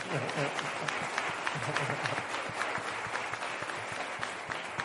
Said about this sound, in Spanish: Un aplauso, aplauso, dale un aplauso, venga.